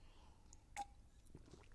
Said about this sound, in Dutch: Even een slokje water.